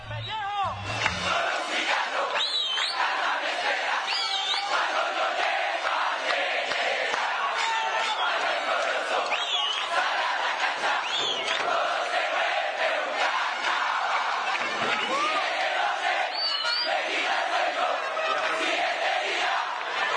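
A large stadium crowd of football fans chants and roars continuously, a dense wall of many voices sustained at steady loudness with rising and falling shouted tones throughout.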